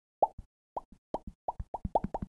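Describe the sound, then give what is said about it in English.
A voice imitates the underwater bloop sound with a quick series of about ten wet, hollow mouth plops, fairly loud, coming in uneven bursts that speed up toward the end. “That's my best bloop. That does not sound anything like a bloop.”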